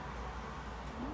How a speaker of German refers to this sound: und wenn ihr jetzt Autos im Hintergrund hört, ist es, äh, wir ein Dachgeschoss, es ist super heiß, deswegen muss man das Fenster aufmachen.